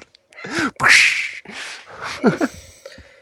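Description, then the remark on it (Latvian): A dog barks in a quick run of five or six sharp, uneven barks, some with a whiny, yelping edge, as a recording is started, and no one talks over them. “Visu dienu suns kluss un kā piespiež ierakstu pogu tā.”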